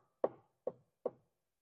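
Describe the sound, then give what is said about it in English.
Three firm knocks on a door, evenly spaced and fairly quick, each a short solid thud that fades fast, with no voices around them. “He knocks on that door.”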